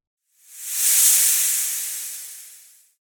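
A snake's long, breathy hiss, swelling quickly and then tapering off over about two and a half seconds, steady, with no talking.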